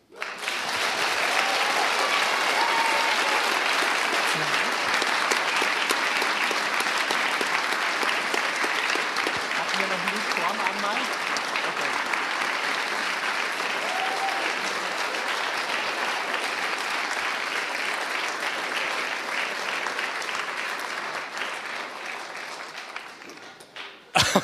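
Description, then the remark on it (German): A large audience applauds the confirmands at a confirmation service steadily for over twenty seconds, a dense, even wash of clapping hands that holds its level before stopping abruptly near the end. “Und ich denke, jetzt können wir unseren Konfirmanden mal einen dicken Applaus geben.”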